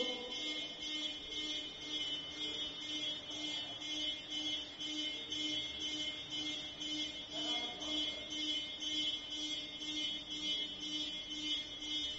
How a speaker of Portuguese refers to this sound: Que Deus nos livre dessa buzina, né?